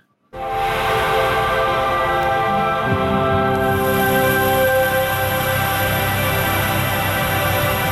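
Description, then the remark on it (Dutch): An Xbox Series X console startup sound: a loud, steady, hissing whoosh layered with humming tones that swells in quickly and holds for several seconds, with no one speaking. “Het is, eh, het is het opstartgeluid van de nieuwe Xbox Series X.”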